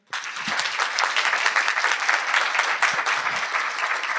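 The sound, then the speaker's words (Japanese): A large audience of corporate HR staff applauds steadily at a public recording on the 4th floor of Akasaka Intercity Air in Akasaka, Minato, Tokyo. Dense clapping from many hands at an even, loud level for several seconds without any talking. “皆さんぜひ拍手してください。”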